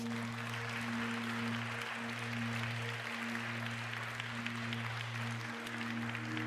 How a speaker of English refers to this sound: Let's give God the praise and applause.